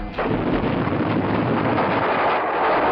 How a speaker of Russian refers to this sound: Одна секунда. Взрыв.